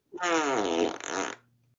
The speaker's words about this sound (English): A little while later, the same loud fart came out again. this time he didn't pause at all. Not again, he said.